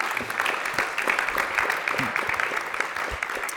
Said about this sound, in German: so, jetzt sind Sie dran. Klatschen dürfen Sie natürlich auch, klar.